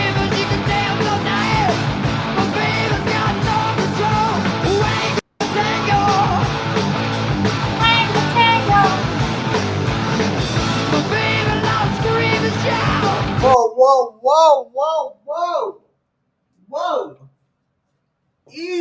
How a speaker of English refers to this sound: Easy there, big homie. Easy there. Nobody wants someone screaming in their face at two in the morning.